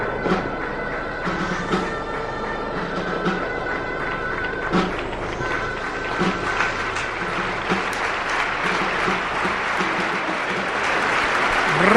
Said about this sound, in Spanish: rompe el público de Mestalla con una ovación atronadora.